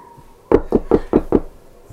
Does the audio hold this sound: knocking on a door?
yes